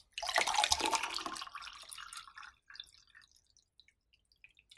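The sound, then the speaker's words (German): Water splashes steadily into a glass for about two seconds, fairly loud, then tapers off into a few scattered drips and trickles. No one speaks. “Ich glaube, du sitzt manchmal zu Hause und übst Wasser einschenken.”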